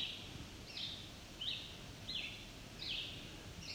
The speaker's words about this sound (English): And the other bird going on and on, that's a red-eyed vireo.